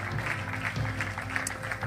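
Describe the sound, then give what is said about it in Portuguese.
A church audience bursts into sustained applause for people who have just made a decision, dense overlapping clapping that stays steady and loud throughout, with a low murmur of voices underneath. “Igreja, será que podemos dar uma salva de palmas a estas pessoas que tomaram a melhor decisão das suas vidas?”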